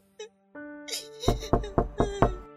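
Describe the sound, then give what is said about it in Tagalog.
Five quick, evenly spaced knocks on a door by nurses bringing a baby, loud, rapping over a low sustained droning tone that starts shortly before them. “Teka sandali, yung mga nurse na atayang kumakatok, dala nila si baby.”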